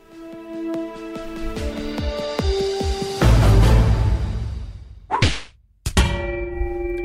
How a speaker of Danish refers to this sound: den her jingle, den indikerede et fast indslag i programmet